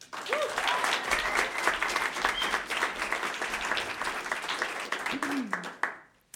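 A crowd applauds steadily, welcoming a storyteller to the stage at KDHX for a storytelling showcase, dense overlapping clapping sustained for about six seconds, with a couple of brief vocal whoops rising above it before the applause quickly fades out.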